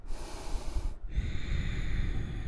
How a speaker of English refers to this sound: I want you to repeat this process in and out of your nose. And if you want to make it a little noisy, feel free. You can constrict the back of your throat so you make that subtle sound of H as you breathe in and breathe out.